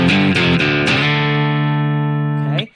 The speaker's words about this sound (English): So I'm playing 3530, and you'll notice because of the drop tuning, it accommodates using one finger to play your chords. And then I'm just doing a slide from C to D to make it sound a little more interesting.